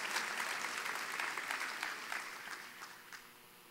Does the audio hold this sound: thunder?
no